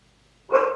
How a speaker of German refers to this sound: Da hat dein Hund gebellt.